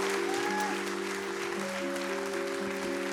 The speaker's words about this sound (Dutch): Dan zeg ik eh, applaus